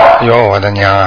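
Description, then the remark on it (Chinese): A dog barks in loud, rough bursts that overlap a person's startled exclamation, the barking and voice running together over about a second. “对不起，那狗。”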